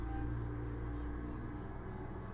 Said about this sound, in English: Oh, y'all hear that? Big ass truck outside my house.